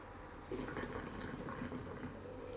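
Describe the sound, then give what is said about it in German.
Water bubbles steadily and continuously, a soft gurgling churn that starts after a brief quiet moment and keeps going at an even, fairly low level with no voices. “den nennen wir Blubbercast, einfach aus einem ganz anderen Grund, weil es mit dem Grund schön blubbert”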